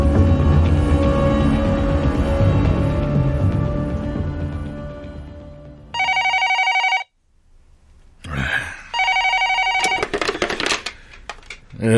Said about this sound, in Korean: 근데 목격자 전화가 딱 걸려왔던 거죠. 상황을 급반전시키는.